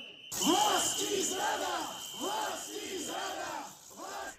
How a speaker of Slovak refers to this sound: Ve Slovenské národní radě bylo tento týden hodně rušno. Pískalo se, křičelo a vystavovali se vlajky. No a podobné dění se dělo i před budovou parlamentu v ulicích Bratislavy.